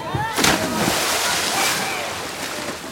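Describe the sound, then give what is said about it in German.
Water sloshes and splashes continuously at the Alpamare water park, with a sharper splash early on and a steady wash of moving water, while voices murmur faintly in the background. “theoretisch sind wir im Alpamare.”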